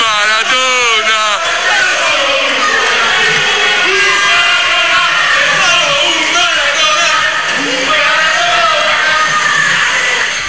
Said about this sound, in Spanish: Estas son, las dos canciones, los dos gritos de guerra que tenían los tifosis, los ultra del, Napoli en su estadio.